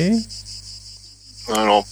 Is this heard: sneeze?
no